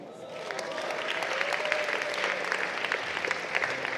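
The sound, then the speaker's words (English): A crowd claps steadily, a dense wash of many hands with sharp individual claps poking through, building slightly and holding at a fairly loud level throughout. “No, you should clap very well.”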